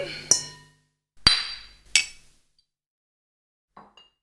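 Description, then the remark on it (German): Three bright glass clinks ring out in a toast to good songs and the guests, spaced about a second apart, each with a short shimmering decay, followed by a couple of faint soft knocks. “Deswegen Prost auf alle gute Lieder und Prost auf unsere GästInnen, die wir heute haben.”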